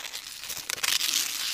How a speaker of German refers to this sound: Einige Minuten bleibt es ruhig, bis sie ein Kratzen aus den Wohnzimmerwänden vernehmen.